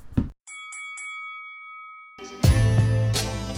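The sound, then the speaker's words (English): A bell dings three quick times with a sustained ringing tone, followed by a loud burst of music kicking in. “Ring the bell.”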